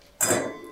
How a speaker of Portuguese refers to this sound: E aí ele então disse assim, que toda vez que se beber um bom vinho, deve-se tocar as taças